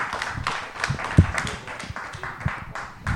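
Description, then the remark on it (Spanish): A burst of applause, many hands clapping in a dense, steady patter with sharper individual claps popping out, moderately loud and sustained throughout, with no one speaking over it. “Muy bien, yo pediré la verdad un aplauso por este tipo de relaciones que son un encanto.”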